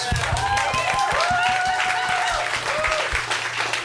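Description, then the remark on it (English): An audience applauding, a dense, steady patter of many hands clapping for a few seconds, with a few voices calling out over it. “I don't know if we're applauding your awesome.”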